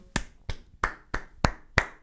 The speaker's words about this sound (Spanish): O sea, un aplauso.